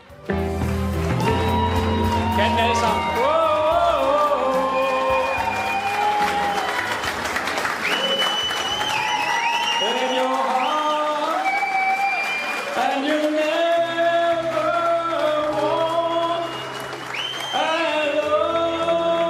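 A large crowd at a Danish People's Party (Dansk Folkeparti) election party, with party chairman Christian Thulesen Dahl singing, sings a song known from the world of sport together in loud, sustained unison, voices rising and falling through a slow melody, with cheering and an applause-like roar filling the background throughout.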